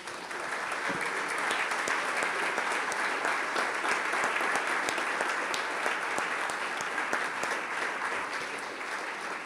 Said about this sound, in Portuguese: Vamos aplaudir a palavra? Vamos, vamos.